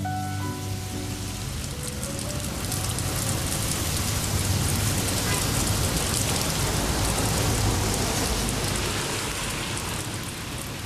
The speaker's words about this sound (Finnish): Joulun alus Padolskajalla on harmaista harmain. Sade on liottanut vanhat kivitalot värittömiksi.